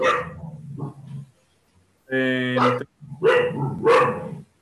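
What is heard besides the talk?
dog barking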